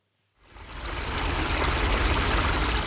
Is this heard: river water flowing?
yes